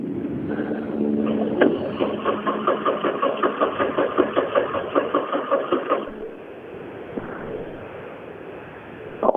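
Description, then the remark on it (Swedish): A car engine churns with a rapid, even pulsing rhythm for several seconds, sounding strained and labored, then cuts out, leaving a quieter low rumble; something is wrong with the car, which also has a bad battery. “Eh, som sagt, någonting är det som krånglar med bilen.”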